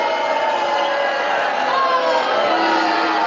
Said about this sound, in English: This is a joint boo double booed to both of you, which is fair.